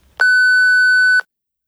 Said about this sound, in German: die hinterlassen ihre Nachricht nach dem Piep.